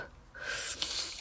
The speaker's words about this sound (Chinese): 或者我们中文有时候会说什么一百岁啊这种的，就是别人打喷嚏的时候，呃，我们紧接着跟跟出来的这句话，在法语里面是什么？